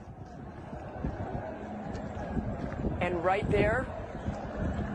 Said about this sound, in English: It was in the middle of the night. But what you hear are those surging crowds going up to Abbey Gate. I'm going to let you hear that.